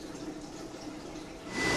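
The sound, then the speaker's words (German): Water splashes and trickles steadily in large black fish tanks spread around a hall, a continuous liquid babble that swells louder near the end. “Große schwarze Tanks stehen in der Halle verteilt und überall hört man es plätschern.”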